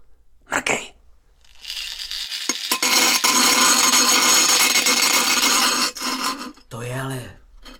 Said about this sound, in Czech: Flexka. Úhlová bruska. A tenhle kotouček se zakousne do železa jako do dortu.